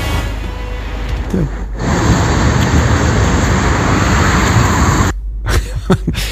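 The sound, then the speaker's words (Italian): A train on a German railway line rumbles past, a loud, steady roaring rush that builds quickly, holds for several seconds, then cuts off abruptly, leaving quieter outdoor background noise. “Saluto anche chi ci scrive dalla Germania e mi manda anche un video della ferrovia eh, tedesca qui.”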